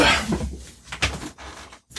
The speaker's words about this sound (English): Moving the chair.